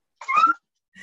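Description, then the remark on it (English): A sharp, high-pitched yelp from a dog accidentally stepped on rings out for about half a second, followed after a short pause by a fainter second cry. “Is that the dog? Did you kick that it? That was the dog.”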